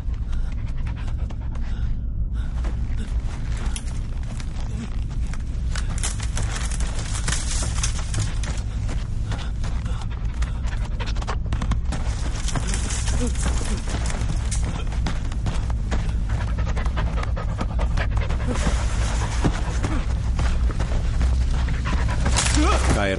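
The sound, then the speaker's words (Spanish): Heavy, rapid panting of a wolf running after a man through bare trees in the snow, loud, breathing in a steady urgent rhythm with scuffling movement throughout the whole stretch. “El lobo va tras él.”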